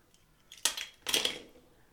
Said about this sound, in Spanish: Hay que hacer que suenen los cristales. Comencemos con el ritual. Una, dos, tres. Que suenen los cristales.